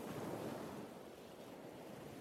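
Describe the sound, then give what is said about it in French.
Ocean waves wash and break in a steady, continuous roar of surf, fairly loud, with a faint wind-like hiss and no voices. “Dans le creux de son oreille, au milieu des vagues et des mouettes, une petite voix se fait entendre.”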